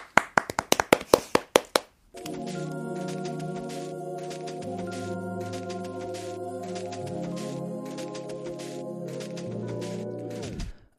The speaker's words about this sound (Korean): 박수!